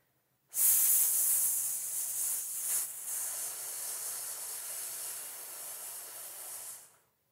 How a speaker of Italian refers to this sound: Questo primo esercizio, quindi mettendo le mani in questo modo sui fianchi e, eh, e mettendo una S sibilata, ti aiuta proprio a capire il tipo di sensazione di tensione che devi sentire.